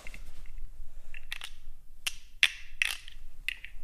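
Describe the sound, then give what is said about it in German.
A wooden stick rasps across the ridged back of a wooden frog in about six short, croaking strokes spaced irregularly, moderately loud with no talking. “das ist für Sie ist eigentlich ein, ein Frosch aus Holz mit einem Holzstab, wo man über den Rücken fahren kann”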